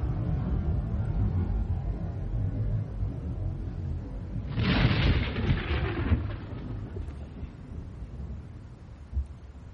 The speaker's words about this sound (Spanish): Ahora, nunca se han puesto a observar una tormenta. Yo traje un video para que ustedes vean más o menos cómo es una tormenta.